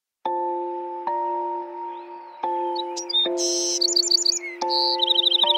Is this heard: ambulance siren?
no